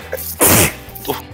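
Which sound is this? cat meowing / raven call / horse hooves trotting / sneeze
sneeze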